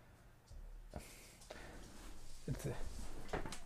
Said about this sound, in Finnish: Aivan niin kuin rasittava tuo Ronja, kun se aukaisee oven, se tulee tänne. Sitten se on silleen, mm, en jääkää tänne, vaan lähden pois. Ja sitten se, se osaa avata tassulla noin ovet tulee jännästi.